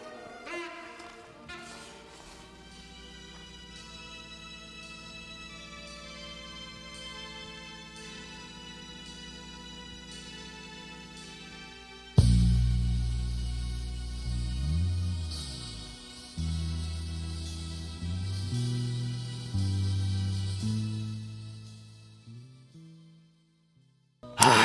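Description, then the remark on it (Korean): A pop song plays alone, opening softly with sustained melodic tones before the full band crashes in loudly with heavy bass and a soaring, wailing vocal line that climbs an octave and then abruptly cuts off at the song's end. “노래가 뒤에서 이제 한 한 옥타브가 또 높아지면서 울부짖다가 끝나버려서 너무 아쉬워요.”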